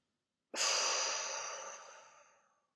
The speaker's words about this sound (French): Mais pour cela, vous allez inspirer par le nez et souffler très fort par la bouche comme pour tout chasser.